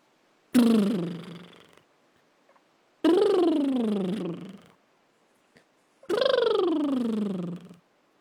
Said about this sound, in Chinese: 小青蛙说，我们可以先学习滚唇 （lip roll），嗯，就是让我们的嘴巴和嘴唇放松，然后轻轻的吐气，让我们的嘴唇滚动起来，就像这样。